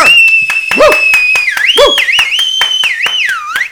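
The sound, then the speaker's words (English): A loud, piercing human whistle holds a sustained high tone, then swoops and warbles up and down, with rapid clicking or clapping sounds and brief vocal bursts underneath. “That's a really impressive whistle.”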